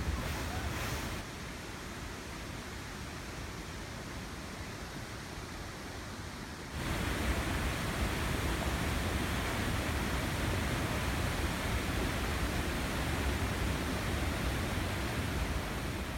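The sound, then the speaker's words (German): A thunderous waterfall, the Devil's Throat, the highest of the Iguazu Falls, roars in a dense, unbroken wash of noise amid thick water spray in the air, growing noticeably louder and fuller partway through, with no voices present. “Der höchste Wasserfall wird der Teufelsschlund genannt. Es ist dort so viel Staub, so viel Wasserstaub in der Luft, dass man gar nicht runter sieht, wo der Wasserfall aufhört.”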